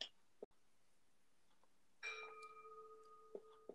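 A clock strikes a single chime, a clear ringing tone that hangs and slowly fades, fairly quiet, with a couple of small taps around it.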